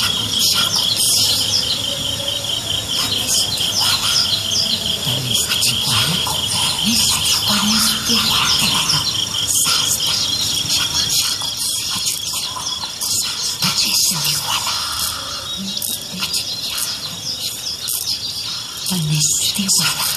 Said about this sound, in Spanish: Vamos a escuchar. Ahí van los pajaritos.